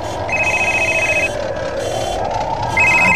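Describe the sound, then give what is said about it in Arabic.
A telephone rings in two bright, trilling bursts, one lasting about a second and another starting near the end, over a steady rumbling engine-like background, as firefighters are on their way to put out a burning house. “الحين ده وده وقت حد يتصل بحد نحن رايحين بنطفي دار يقومون يتصلون”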